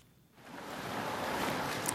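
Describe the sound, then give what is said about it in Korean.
After a brief hush, a broad, hissing wash of ocean surf swells up and rolls on steadily and loudly, with no distinct voices standing out. The sea is at Gyeongpo Beach in Gangneung, whose sand is packed with summer vacationers. “모래사장 위에는 많은 피서객들로 인산인해를 이뤘다. 모두들 금방이라도 푸른 바다에 뛰어들 듯한 편한 옷차림이었다.”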